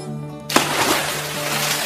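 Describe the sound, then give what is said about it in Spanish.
A sudden splash as a dog plunges into water from a pier, followed by a second or so of churning, spraying water noise, after a steady low hum. “Epa, se mandó al agua de una.”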